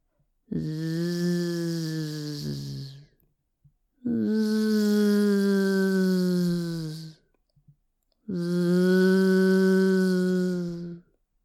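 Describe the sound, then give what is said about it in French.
A crocodile snoring: three long, loud, droning snores, each lasting about three seconds and separated by short silent pauses, with a deep buzzing tone like a giant bumblebee. “Ce que tu entends, c'est le ronflement du crocodile que ton papa a endormi.”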